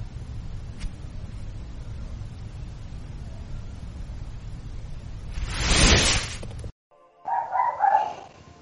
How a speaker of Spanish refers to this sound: Bueno, los perros que se oyen hay que decir que no son anomalías, sino que están en la casa de uno de nosotros.